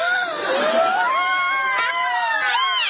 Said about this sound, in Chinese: 欢呼声说明了一切。